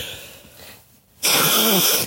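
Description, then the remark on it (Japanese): A soft airy sniff, a brief pause, then one loud, forceful nose blow, a rough rushing honk with a slight squeaky edge lasting under a second. “いや、もう鼻かんでリズムとか言うの。”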